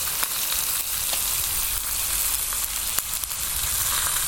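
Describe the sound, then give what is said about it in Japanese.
Pork belly sizzles steadily in a frying pan, recorded from about 40 to 50 centimeters away, a dense, crackling hiss with scattered sharp pops, loud and continuous with no voices. “せっかくだからこの焼いている焼き物にも敬意を払って正面にマイクを持っていってみます。”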